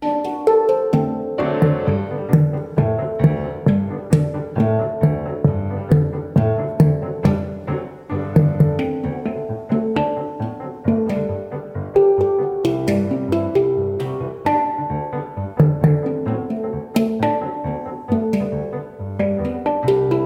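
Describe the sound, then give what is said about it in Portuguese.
A handpan and piano play together in a gentle, steady piece of mostly Brazilian repertoire, with soft ringing metallic tones layered over flowing piano chords and melody. No voices are heard. “nós revisitamos um repertório basicamente brasileiro através da combinação do piano e do handpan, instrumento também conhecido como panela de mão”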